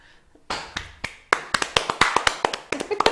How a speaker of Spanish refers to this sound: Ese puede ser posiblemente el aplauso más chaqueto que han escuchado en la historia. Pero bueno, ahí está.